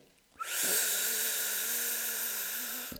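A single steady hiss of air sucked in through pursed lips during a breathing exercise to fill the chest and belly, starting abruptly and holding for over two seconds, fairly loud (made louder than normal), with a faint whistle-like tone underneath. No talking.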